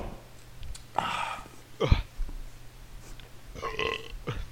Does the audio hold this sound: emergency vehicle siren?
no